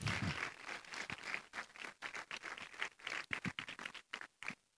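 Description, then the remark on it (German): An audience applauds a woman speaker after her talk, a dense, steady patter of many hands clapping at once that stays fairly even in loudness across the whole stretch, with no voices over it. “Ihr dürft ihr gerne Applaus geben.”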